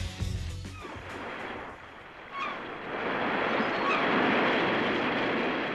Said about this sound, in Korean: 날도 더운데 시원한 파도 소리, 갈매기 소리 좀 들어보시죠.